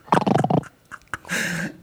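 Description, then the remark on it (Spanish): Someone imitates snoring with their voice: a rough, rumbling voiced burst, a short pause, then a longer, breathy, rasping snort. Fairly loud, with no other talking. “Así y roncar como la bestia.”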